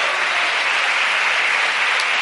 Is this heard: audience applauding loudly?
yes